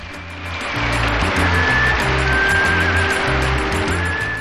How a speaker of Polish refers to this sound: Chwała mu za to, dostanie brawa. Proszę bardzo.